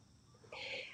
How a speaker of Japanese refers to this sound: はい、また、あの、カラスの鳴き声が遠くに聞こえてますけども、なるべくカラスのいないところに移動しながら配信してますが、